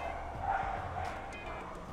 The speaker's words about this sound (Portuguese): E o cachorro latindo na rua.